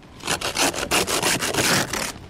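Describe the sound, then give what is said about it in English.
Harsh, rhythmic scraping and grinding strokes as a seal uses its canine and incisor teeth to break a breathing hole in the ice, repeating several times in quick succession, loud, with no voices. “But in order to breathe, they use their canine and incisor teeth to break holes in the ice.”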